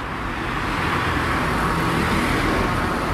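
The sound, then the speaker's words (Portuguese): Steady, dense roar of traffic on the busy Padre Eustáquio avenue, engines rumbling continuously, with no pauses or voices for the whole stretch. “A Padre Eustáquio é realmente é, tão movimentada quanto a, quanto a Pedro II.”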